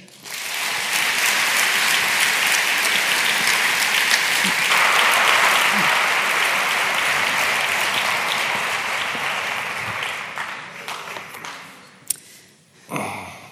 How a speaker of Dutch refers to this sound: Ik vraag nu graag eh, een hartelijk applaus voor Hans Schnitzler.